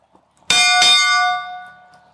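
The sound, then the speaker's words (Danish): A handbell rings out in two quick strikes to announce that there are 10 minutes until mealtime, leaving a bright, shimmering tone with clear high overtones that lingers for over a second before fading, with no talking. “Hvorfor ringer du med den? Øh, det er fordi, der er 10 minutter til at spise.”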